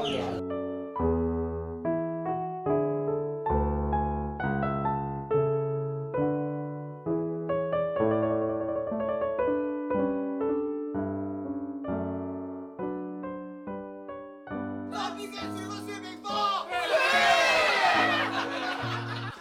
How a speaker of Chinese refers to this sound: 你刚刚听到的声音来自上海市虹口区提篮桥地区一条名叫金有里的弄堂。二零二零年十月十七日那天晚上，金有里的居民们正在举行他们在这里的最后一次弄堂聚餐。